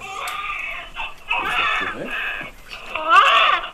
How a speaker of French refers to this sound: notre bébé va bien, il pleure, il respire, il a une bonne coloration.